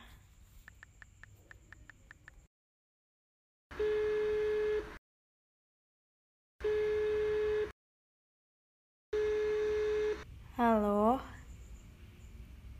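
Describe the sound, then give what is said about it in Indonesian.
A phone call placed through a phone app's online general-practitioner consultation feature: a quick run of dialing beeps, then three steady ringing tones about a second each with silent gaps between them, ending as a voice briefly answers. “Oke, aku download aplikasinya dan oke okay, udah ke download oh ini ada fitur konsultasi online dokter umum coba telepon aja”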